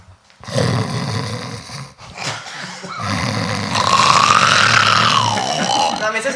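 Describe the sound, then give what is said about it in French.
A person imitates the snoring of a sleep apnea patient with their voice, making loud, rasping, throaty snorts in a few long drawn-out bursts, the last one rising into a wavering nasal whine. “c'est-à-dire que en fait on peut observer des longues phases d'apnée, c'est-à-dire que le patient ronfle.”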